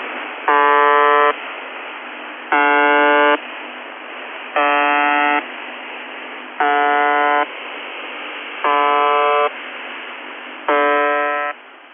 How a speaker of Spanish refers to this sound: UVB76, también conocida como The Buzzer o el zumbador. Porque hace, sí, hace pi, pi, pi, cada dos segundos.